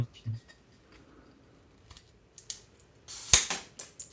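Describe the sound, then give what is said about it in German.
Clicks and scraping as a pen pries at the crown cap of a beer bottle, used in place of a bottle opener, building to a sharp cracking burst near the end, followed by a few rattling clicks; the pen ends up broken. “Oh, jetzt ist der Stift kaputt.”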